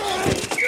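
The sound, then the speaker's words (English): Football pads collide in a couple of quick, dull thuds, with a faint high squeal and a steady background hum around them. “The collide of football pads.”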